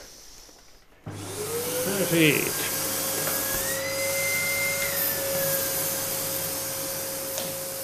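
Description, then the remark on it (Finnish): A vacuum cleaner used by chimney sweeps to clean a chimney's heating flue switches on abruptly after a second of quiet and keeps running loudly and steadily with a whining tone, while a person speaks briefly over it. “Että ja imuria on, vielä päälle.”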